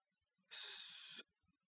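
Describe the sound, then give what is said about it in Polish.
A single recorded breath played through a shower-like speaker in an exhibition installation projecting five breaths: a short airy exhale lasting under a second, clear against silence with no voices. “Widzimy oddechy, słyszymy i widzimy oddechy.”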